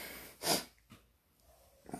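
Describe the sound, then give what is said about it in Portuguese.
A sharp nasal sniff, followed by two fainter, shorter sniffs spaced out over the next second and a half, with no talking. “Eu comecei a fungar.”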